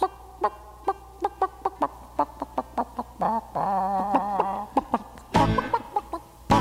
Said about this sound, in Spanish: Bueno, eh, si quiere ver a un animal abnegado y provechoso para el ser humano. Fíjese en las gallinas.